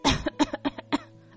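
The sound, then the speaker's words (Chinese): A voice puts on a string of forced, theatrical coughs as the rose in The Little Prince fakes coughing: one long hacking burst followed by three or four shorter, evenly spaced coughs that taper into a faint breath. “不断的咳嗽，只是这个明耳人大概都听得出来，那不是真的咳嗽，是要让小王子觉得都是我的错，没有好好照顾你，害你咳嗽。”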